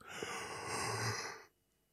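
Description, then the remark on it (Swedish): A man lets out a fake yawn, one long, breathy exhale lasting about a second and a half, then cutting off into near silence. “Han fake gäspar.”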